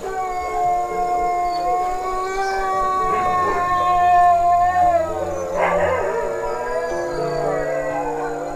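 animal, wolf howling

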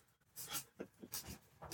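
household object, writing by hand

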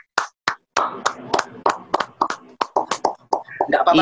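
human body sound, hand clapping

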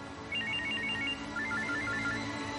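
household object, telephone ringing

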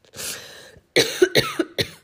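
human body sound, coughing

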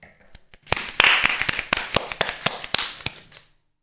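human body sound, one person clapping hands

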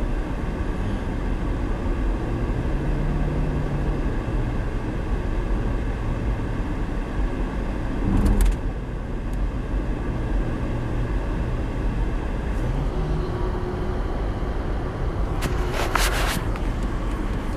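vehicle, road traffic

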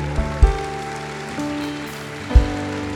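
crowd, audience applause

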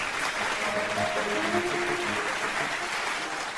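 crowd, applause

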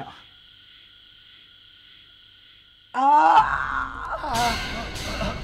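human body sound, man screaming in pain

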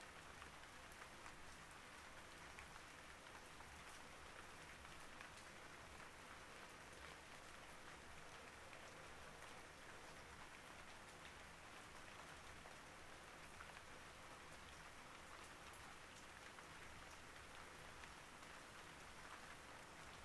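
nature, rain falling

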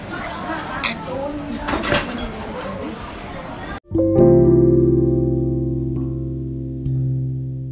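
household object, glasses clinking

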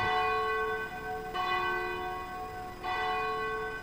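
signal or alarm, cathedral church bell ringing

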